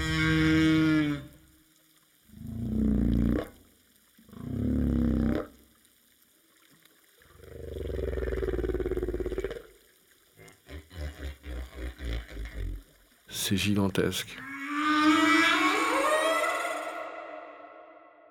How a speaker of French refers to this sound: Il y a beaucoup de sons de baleines, pas dans l'eau, mais quand les baleines flottent, sortent de l'eau.